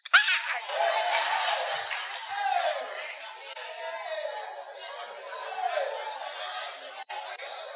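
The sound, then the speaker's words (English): A crowd roars and shouts together in a sustained, lively reaction, voices overlapping loudly for several seconds before the noise eases slightly and swells again. “Listen, you've not heard all the story, you are shouting.”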